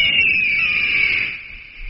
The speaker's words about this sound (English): We just feed him this... another herring. Squawky, or bald eagle.